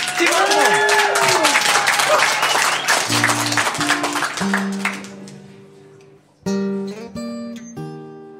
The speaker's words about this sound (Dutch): Geef hem een hartelijk applaus.